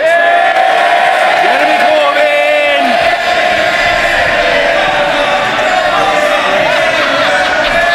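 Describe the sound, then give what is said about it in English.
A loud, continuous din of many Members of Parliament shouting and jeering at once, trying to shout down a speaker, a dense wall of heckling that holds steady for the whole stretch with no single speaker standing out. “Uh, oh, oh, oh, the Right Honourable Gentleman will be heard attempts to shout down a down market, they're low grade, they're regarded with contempt by the public, but above all, they won't work.”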